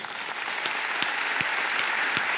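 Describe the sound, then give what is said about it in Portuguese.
A church audience applauds Jesus steadily, a dense wash of many hands clapping at an even volume, with a few sharper individual claps standing out. No one speaks over it. “Agora é aquela hora que você dá aquele aplauso bonito para Jesus.”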